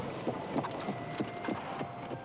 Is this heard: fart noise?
no